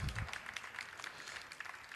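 An audience applauds steadily, a dense wash of many hands clapping at once that holds evenly for the full two seconds, heard at moderate distance with a brief low murmur at the very start.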